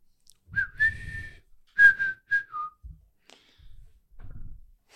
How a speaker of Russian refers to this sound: Тут такая тревожная музыка.